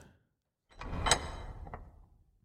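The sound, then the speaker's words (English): A door swings shut with a sliding scrape and a sharp thud, followed by a softer knock and a brief rattle as it settles; moderately loud, with no voices. “Oh, that, that door was a bit dodgy, eh?”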